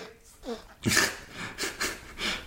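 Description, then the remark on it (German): Congested breathing with wet, snotty sniffles from a person who is sick with a cold, several loud noisy bursts in a row, irregular and heavy, preceded by a brief low vocal sound. “ist krank, falls ihr gerade dieses rotzschnauf schnauf äh, äh gehört habt.”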